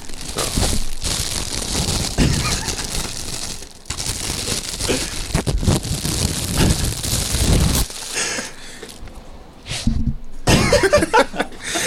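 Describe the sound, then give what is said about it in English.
Loud crinkling and tearing of plastic packaging as a merchandise package is opened right at the microphone, rustling continuously for several seconds before a few sharper crackles and pauses near the end. “ASMR. That shit's so oh, open weird. It, open it up on the thing.”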